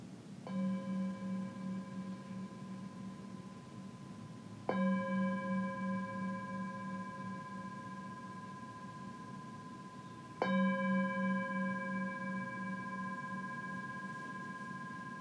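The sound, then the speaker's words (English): A meditation bell is struck three times to begin a mindfulness meditation, each strike a bright, clear tone with a low hum beneath, left to ring out and slowly fade before the next. No one speaks. “And I'm just going to ring the bell to invite you into the space.”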